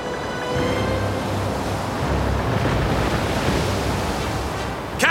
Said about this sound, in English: Captain! Wind's blowing strong behind us! There's a storm coming!